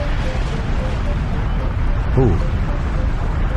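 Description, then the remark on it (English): A deep, continuous roar of Mount Agung erupting on the island of Bali, Indonesia, rumbles steadily throughout, broad and heavy, with a person briefly exclaiming partway through. “no, this is actually a, uh, a volcano erupting uh, on the uh, island of Bali in uh, Indonesia, Mount Agung.”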